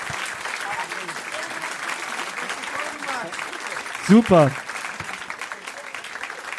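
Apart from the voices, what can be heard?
audience applause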